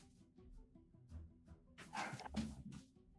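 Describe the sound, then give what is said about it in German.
A dog gives two short, sharp barks, preceded by a stretch of quieter low whining and shuffling noises; the dog is upset by a staircase. “Sorry, der Hund ist extrem Sicher verstört davon, dass eine Treppe existiert.”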